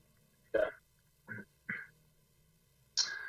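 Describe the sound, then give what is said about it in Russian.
A short transition bumper made of four abrupt, loud quack-like bursts, spaced irregularly over a few seconds, with quiet gaps between them and no talking. “Спасибо тебе за такой э, нарезочку, сбивку.”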